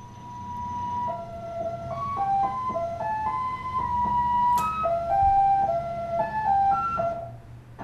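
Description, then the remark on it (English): A shortwave number station broadcast: a simple electronic melody of steady, stepping tones shifting between a few pitches, played over a continuous low rumble and hiss of radio static. “So that's these are number stations, right?”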